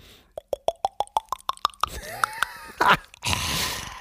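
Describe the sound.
A voice mimics a drink being poured with a quick run of about ten hollow mouth plops climbing in pitch, like a glass filling, followed by some breathy rustling and a short burst of hiss.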